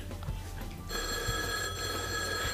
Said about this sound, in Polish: No, odbierz ten telefon.